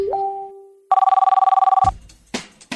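A telephone bell rings in one loud, rapid trilling burst lasting about a second on Radio UNAM's program Prisma RU, preceded by a steady tone and followed by a few clicks and clunks, with no voices.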